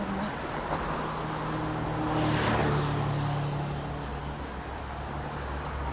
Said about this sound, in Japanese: まあここから迎品館から外苑に向かっての通りっていうのはすごく車の通りが激しくてもうバンバン車が通過してます